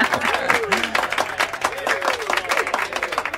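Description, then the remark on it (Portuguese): A burst of clapping and cheering from a small group welcoming a guest introduced at a launch, dense and steady for a few seconds, with excited voices rising and laughing over the applause. “Palmas para ela!”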